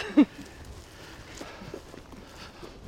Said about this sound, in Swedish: Vad är det för djur som går där? Det är kor